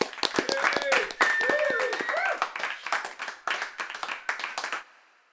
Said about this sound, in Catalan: Abans que el meu front hagués tocat a terra, ells es van posar d'en peus, aplaudint, fervorits.